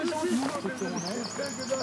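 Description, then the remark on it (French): Birds chirp in thin, high tweets scattered across the background while a person talks steadily over them, the voice louder than the birdsong. “Oh, les oiseaux. Les oiseaux.”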